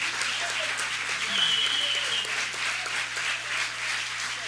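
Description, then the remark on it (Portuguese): Steady applause from an audience for two musicians who have played together since 1957, a dense, even wash of many hands clapping at once that holds at a constant level for several seconds. “Vocês podem levantar um pouquinho só para a gente dar uma salva de palmas para vocês?”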